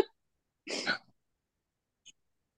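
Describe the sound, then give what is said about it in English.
A single rough, throaty burst of throat clearing or a cough from a tickle in the throat, fairly loud, followed by a brief faint click and then silence. No one speaks. “Damn, I have a tickle in my throat.”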